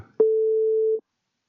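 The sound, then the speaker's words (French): A single steady ringback tone from an outgoing phone call: one clear, pure beep lasting under a second, followed by silence. No voices are present. “Alors, voilà, normalement, vous devez entendre sonner comme moi, je pense.”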